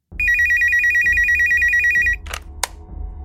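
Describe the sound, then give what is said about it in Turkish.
A telephone rings with a rapid, trilling electronic warble for about two seconds, loud, then stops; a brief clatter follows, like the handset being picked up. “Steven'ın hapse gidişinden bir gün sonra Penny'nin telefonu çaldı.”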